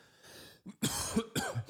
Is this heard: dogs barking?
no